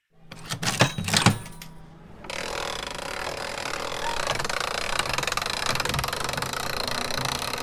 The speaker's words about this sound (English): I got the sound of some press penny machines, the gears and that.